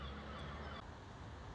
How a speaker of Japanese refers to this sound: 皆さん先ほど聞いて分かった通りですねえっと、BGM がカモメの鳴き声でした。はい。で、ちょっとね、カモメの鳴き声が素晴らしかったので、ちょっと今回 BGM ほぼなしでいこうかなと思っております。